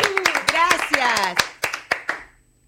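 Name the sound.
applause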